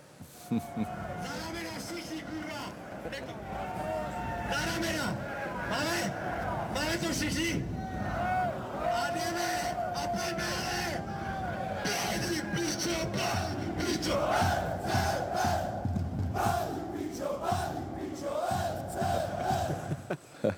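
A large crowd of football fans in the kotel, the hardcore supporters' stand, chants loudly and continuously, with David Pastrňák among them, many voices shouting in unison with rhythmic surges, sustained for about twenty seconds without pause.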